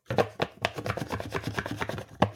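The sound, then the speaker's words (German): A stack of printed cards being handled: a quick, irregular run of dry papery flicks, taps and rustles, fairly loud, with sharper snaps near the start and end and no talking. “Nein, ich habe hier wunder, wunderschöne Karten, die ah, ich habe drucken ja.”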